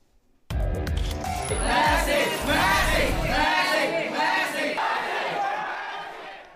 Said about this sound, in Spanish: Y ahí lo escuchan, es la locura por Messi que sigue despertando pasiones y emoción en la gira del Inter de Miami